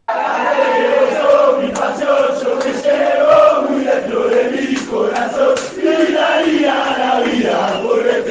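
A large crowd of football supporters sings a chant set to a pop melody, many voices in loud unison with a steady, rhythmic cadence that carries on throughout.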